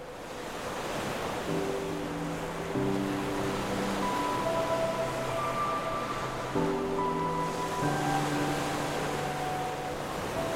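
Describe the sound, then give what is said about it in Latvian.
A steady, full wash of sea waves rolling onto the shore in Latvia, with soft sustained musical chords drifting over the surf. No one speaks. “Mans mīļākais um, Iedvesmas, protams, um, Latvijā ir jūra.”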